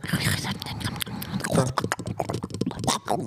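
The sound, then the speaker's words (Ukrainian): ASMR-style mouth crunching into a microphone: a dense, continuous stream of wet clicks, smacks and crackly chewing-like crunches, fairly loud, with no talking, made by a person's mouth. “Е, Коротше, оці от всі стріми, е, і вони там просто хрустять, так, булькають, прикольно. пукають. І це, типу, на супермаксимальці на мікрофоні.”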